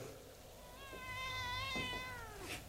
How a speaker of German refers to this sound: Ach, eine junge Katze. Ja, da habe ich wenigstens Gesellschaft. Ein schönes Tier, Sir.